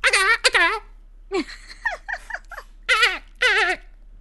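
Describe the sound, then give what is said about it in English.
A person imitates a dolphin with several high, warbling squeaky bursts, fairly loud, broken up by a few shorter breathy vocal sounds in between. “no, the dolphin noise is.”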